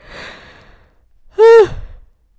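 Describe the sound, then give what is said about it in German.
A single yawn, not from tiredness: a long breathy inhale that swells into a short, loud, drawn-out voiced groan, then trails off into soft breath. No talking. “Und die, die den Podcast öfter hören, die wissen, dass ich voll oft gehen muss beim Podcast-Recording, obwohl ich nicht müde bin.”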